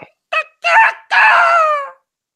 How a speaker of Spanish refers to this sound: ¿Tú crees que canta el gallo?